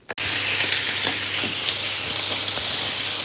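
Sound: steak sizzling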